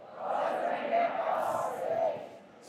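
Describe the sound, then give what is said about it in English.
A large audience shouts loudly in unison, 'God's going to make my path straight', a dense roar of many voices that swells and holds for a few seconds before trailing off near the end. “Shout it out as loud as you can. Say, God's going to make my path straight.”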